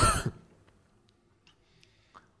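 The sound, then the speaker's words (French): A single sharp cough into a microphone bursts out at the very start, followed by near silence with only a few faint clicks and soft breaths. “ne sais pas comment ne pas tousser dans le micro, donc pardonnez-moi.”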